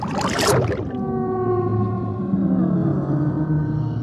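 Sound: whale vocalization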